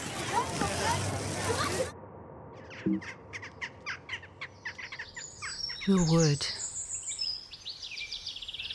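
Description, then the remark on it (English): Bright, repeated blackbird calls and chirps ring out outdoors, a run of short whistled notes followed by a warbling phrase, with a brief spoken voice at the start and faint background noise. “Blackbirds calling, bluebells, home.”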